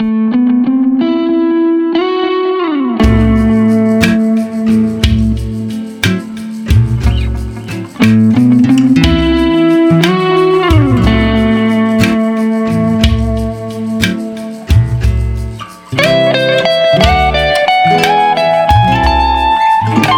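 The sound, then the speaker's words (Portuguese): A blues song from Jequitinhonha plays loud, with a distorted, effects-laden electric guitar line over a steady thumping bass rhythm, continuous throughout with no singing. “surpreende com um blues do Jequitinhonha”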